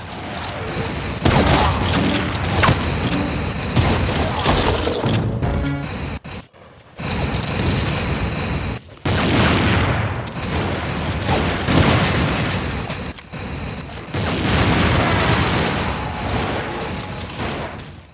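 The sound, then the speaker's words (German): Dense, almost nonstop video-game gunfire from about 20 seconds of a 5 versus 5 Capture the Flag match in the game Soldat: rapid bursts and explosions layered over each other, loud throughout, with brief lulls near six and nine seconds and no talking. “Drum es ja jetzt knapp 20 Sekunden aus einem 5 gegen 5 Capture the Flag Match in Soldat.”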